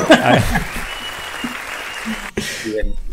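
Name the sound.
applause sound effect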